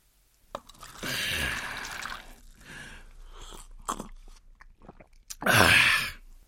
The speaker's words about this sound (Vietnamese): Ông đổ rượu vào cốc giấy, uống ực một hơi